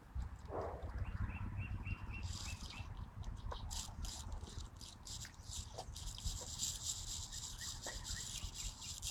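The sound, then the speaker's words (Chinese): A yellow-browed warbler sings from high up in willow trees in thin, very high-pitched notes, repeated and faint, over a steady low rumble and rustling background noise. “黄眉柳莺在树上鸣唱”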